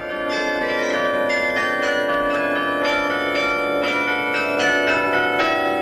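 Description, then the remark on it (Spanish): Carillon bells ring out a simple melody, struck by hammers that lift briefly and fall onto the bells, with pins arranged to program simple melodies; bright struck tones follow one another in a steady rhythm, their long resonant overtones blending and sustaining loudly throughout. “Carrillón de campanas”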